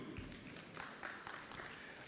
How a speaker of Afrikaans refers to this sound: Geef haar lekker hande klap toe.